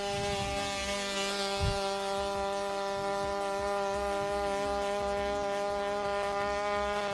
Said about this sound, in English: I had to use that stupid little two-stroke motor too. It, that it, sounds like a bee.